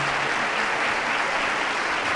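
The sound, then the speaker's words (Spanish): Loud, sustained applause and a standing ovation from a large crowd in Jaén for the woman who has just delivered the pregón, a dense steady wash of clapping that keeps up without pause throughout, with no voices standing out. “Un aplauso bastante intenso la ovación que está llevando la, pregonera, que con la mano al pecho agradece de todo corazón”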